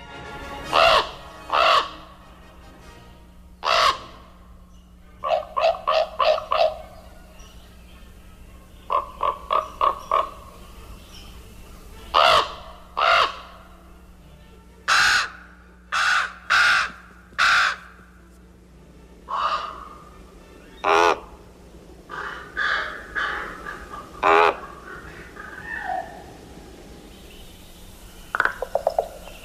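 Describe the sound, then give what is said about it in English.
A common raven gives a long series of deep, throaty croaks and gurgling calls, some in rapid clustered bursts, others single, against a quiet background with a low steady hum. “And beneath those elongated throat feathers come these throaty and amazing sounds.”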